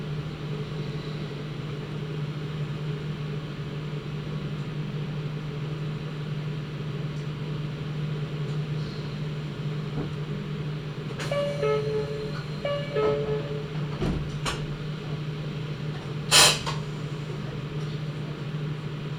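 A Nagoya Railroad (Meitetsu) Gamagori Line local electric train departing a station in Japan, running from Gamagori toward Kira-Yoshida: a steady low motor hum and rumble throughout, a short run of tonal door-chime beeps midway, then a sharp clunk near the end. No one speaks.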